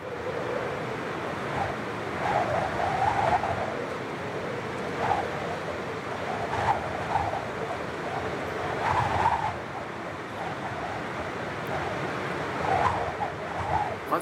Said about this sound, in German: aber es heißt, ein mächtiges Rauschen wie ein Sturm wie ein Sturm